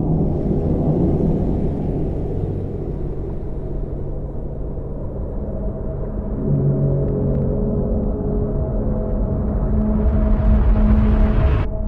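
A low, continuous droning hum from the sound design of a Lynch film rumbles steadily throughout, with faint tonal layers shifting underneath and a slight swell toward the end, no voices present.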